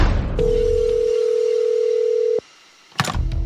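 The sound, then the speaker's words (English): A steady, loud telephone dial tone hums for about two seconds, opening a voicemail segment for Steve Austin, the Texas Rattlesnake, then cuts off abruptly, followed by a brief pause and a sharp click or clatter like a handset being picked up. “And now we check in on the voicemail of the Texas Rattlesnake.”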